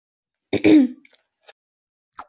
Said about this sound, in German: Äh, ja, das war Husten, da sagt man nicht Gesundheit. aber danke.